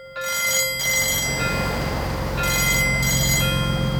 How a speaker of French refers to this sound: À 23h40, le veilleur, Frédéric Filt, aperçoit au loin un iceberg droit devant. Il sonne aussitôt la cloche d'alarme et téléphone au poste de commande.